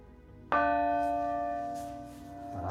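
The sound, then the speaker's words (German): The middle one of three church bells, each bell having a different tone, is struck once, ringing out with a sharp attack and a rich, harmonic tone that hangs and slowly decays, heard clearly with no talking. “Ich schlage nochmal die mittlere an.”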